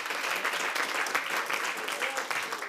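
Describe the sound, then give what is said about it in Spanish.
An audience bursts into sustained applause for the Lord and the word, a dense, steady wash of many hands clapping at once with no pauses, filling the whole moment evenly from start to finish. “Eh, denle un fuerte aplauso al Señor, a la palabra.”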